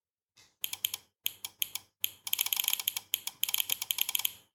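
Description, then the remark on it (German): The relay of an IoT switch, on a small breadboard circuit switching a lamp on and off, clicks rapidly in quick bursts of sharp, dry ticks, with brief pauses between clusters and a dense stretch midway. The clicking is moderately loud, with no voices. “Und äh, da haben wir euch sogar hier jetzt mal live äh, als Audio ein kleines Beispiel mitgebracht, wie sich so ein Schalter anhört.”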